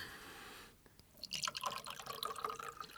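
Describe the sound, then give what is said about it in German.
Scotch is poured into a glass and topped with soda water, with no ice. A bright splashing, bubbling trickle starts after a short quiet pause and runs steadily to the end. No voices. “Vielleicht einen Scotch. Ja, bitte, Mixer. Mit Soda.”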